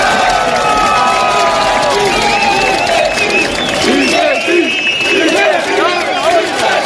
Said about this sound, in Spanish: Contó con la ayuda de sus compañeros que empezaron a aplaudir y a golpear sus fusiles al grito de di que sí, algo que finalmente acabó sucediendo.